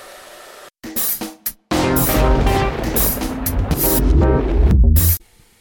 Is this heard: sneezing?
no